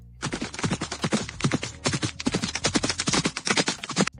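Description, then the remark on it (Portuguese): A rapid, continuous drumming of hoofbeats as several horses gallop, the thuds overlapping in a loud, steady rhythm with no voices; a medieval fantasy sound effect played from the Bardify app. “Cavalos galopando.”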